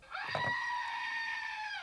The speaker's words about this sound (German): Wir haben ab jetzt, da wir auf euer Feedback gehört haben, eine Ziege, die man drücken kann, wenn man zu Wort kommen möchte und alle anderen gerade rumschreien. Wir äh, blenden euch jetzt mal hier kurz den Sound ein.